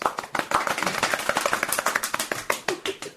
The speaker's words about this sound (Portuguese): Muito bem, muito bem. Uma salva é de palmas.